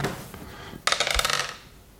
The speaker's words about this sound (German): Ach, aber, äh, vielleicht würfeln wir direkt los, irgendwie, ja.